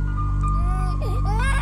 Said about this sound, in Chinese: 还有婴儿的哭声。诶，婴儿的哭声是从隔壁传来的，仔细听还可以听到有人在安抚婴儿。哦天哪，这里的隔音也太差了！